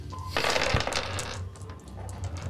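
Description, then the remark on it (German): Dice are rolled for Agility in a game, rattling and clattering across a tabletop in a quick burst of hard little impacts that settle after about a second, fairly loud over a low background hum. “Du wirst äh, getroffen Beziehungsweise du kannst Agility würfeln. Mal gucken, ob du getroffen bist.”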